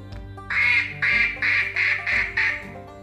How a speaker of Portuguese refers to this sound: Primeiro passou o pato. Eu quero, disse ele. Dona Baratinha perguntou-lhe: Como é a sua voz? O pato grasnou.